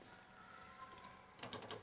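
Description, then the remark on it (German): A short burst of several quick keystrokes on a computer keyboard, starting a program to read a punched paper tape into the computer, after a moment of quiet hum with a faint electronic whine. “Ich starte hier auf dieser Tastatur”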